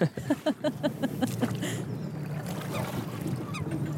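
A rowboat moves across water, a quick series of rhythmic creaks at first, then a steady wash and splash of water, with no one talking.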